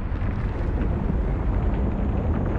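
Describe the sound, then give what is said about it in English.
A simulated quake on the planet Mercury as heard through the ground: a deep, continuous rumble, muffled as if heard through solid rock, with heavy low-end energy and a steady roaring texture that persists throughout without any voices. “Scientists have found evidence that the planet is seismically active so if you put your ear against the ground, you might catch the sound of something strange a mercury quake.”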